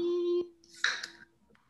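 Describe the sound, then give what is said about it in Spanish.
A single sharp sneeze, a short hissy burst lasting about half a second, follows a steady humming tone that stops abruptly just before it. No one speaks. “Salud.”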